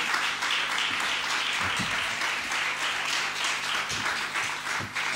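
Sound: audience applause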